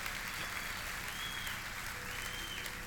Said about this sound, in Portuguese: Como igreja, nós antecipadamente adoramos e aplaudimos o teu nome precioso, majestoso, glorioso, nome majestoso de Jesus. Ei, aplauda o Senhor mesmo e adore.